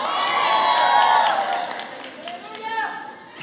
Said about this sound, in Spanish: Ahí no tenían que haber gritado ellas, tenían que haber gritado los maridos.